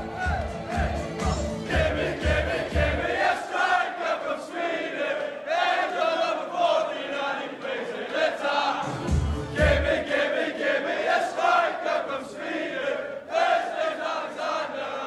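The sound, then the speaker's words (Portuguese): A huge stadium crowd of Newcastle football fans chants loudly and continuously, many voices singing together in a steady, echoing roar with rhythmic surges, heard on its own. “E a torcida, né? A torcida, é demais.”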